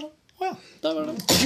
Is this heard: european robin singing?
no